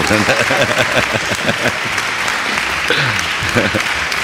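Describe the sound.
A burst of applause, dense and steady clapping from a small group, with voices talking and laughing underneath.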